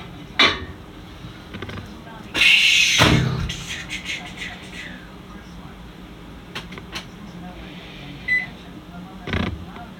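A microwave oven cooking a large plate of food runs with a steady low hum, punctuated by a loud clatter of its door and a few short electronic beeps as its button goes off, with faint household clinks in the background.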